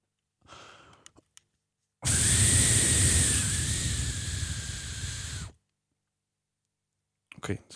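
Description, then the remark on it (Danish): A single sustained, forceful breath blown into a breathalyzer for about three and a half seconds, giving a reading of 0.9 per mille, a loud steady rush with a faint high whine, preceded and followed by brief rustling. “Nå, så skal der blæses her.”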